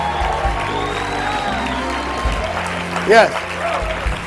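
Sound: audience shouting praise loudly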